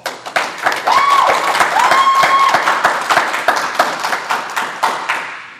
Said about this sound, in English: Uh, we, are going to have three different guests, and this is actually being recorded before a live studio audience. Can we have applause?